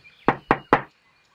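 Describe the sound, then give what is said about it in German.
Three quick, evenly spaced knocks on a wooden pole, fairly loud, each a short dull thud, followed by quiet. “lief aber zu einem Holzmast und klopfte dreimal.”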